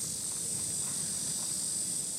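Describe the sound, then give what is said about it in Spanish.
A steady, high-pitched drone of cicadas buzzes continuously throughout on a hot day in Shanghai, an unbroken shrill hum over faint low rumble in the background, with no voices. “Pues hasta aquí eh, el episodio de hoy, otro episodio entre el calor y las cigarras.”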